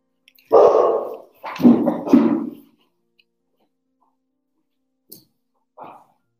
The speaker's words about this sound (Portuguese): E a gente está com um cachorro muito bravo latindo aqui.